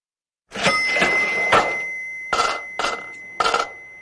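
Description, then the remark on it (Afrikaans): A cash register bell rings out with a bright, lingering tone over mechanical clatter, followed by three short clunking bursts, fairly loud with no voices. “Hier is die kasregister.”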